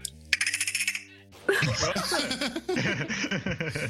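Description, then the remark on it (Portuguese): A person imitates a dolphin with a rapid burst of high-pitched squeaky clicks and trills lasting under a second, followed by several seconds of people laughing. “O cara faz um golfinho,”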